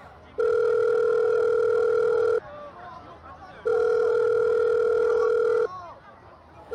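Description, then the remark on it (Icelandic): A telephone ringing tone sounds twice, each a steady two-second electronic burr with a gap between, loud over a low murmur of background chatter. “Láreglann í Seúl fekk fyrsta símtalið frá í Taiwan kl. 18.34 að staðartíma.”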